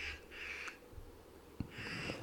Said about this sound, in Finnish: Rupes varis rääkymään. Joo, varis ottaa Siellä vähän varmaan kantaa.